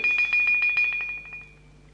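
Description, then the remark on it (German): A bell, rung by pulling a bell cord, rings with a rapid, shimmering run of strikes, bright, then a sustained tone lingers and fades away with no voices present. “Zweimal muss der Kaiser von China läuten, bis sein Hofmarschall gnädigst zu erscheinen geruht.”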